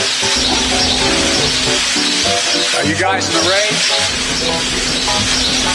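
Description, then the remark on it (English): Steady rain falling outside hisses in a constant wash of noise, holding an even level throughout while a man speaks over it. “I thought, okay, I thought that was rain.”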